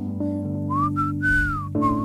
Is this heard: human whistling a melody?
yes